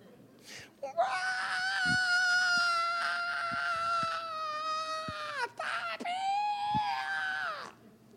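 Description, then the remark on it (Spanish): A voice imitates the wild, gorilla-like screaming of a child in a Sunday school class: two long, loud, sustained shrieks, the first lasting several seconds, followed by a brief break and a second, slightly shorter wail. “El domingo estaba yo aquí en, mi oficina y había un niño en la clase dominical. Los gritos eran de gorila.”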